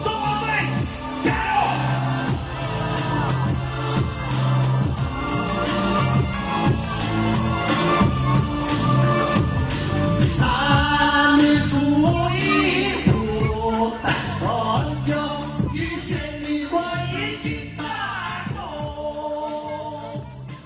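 The national anthem of the Republic of China sung in the Atayal language, with steady melodic vocals over full instrumental accompaniment, holding a consistently loud level from start to finish.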